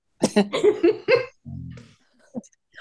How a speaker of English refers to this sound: sorry coughing like i did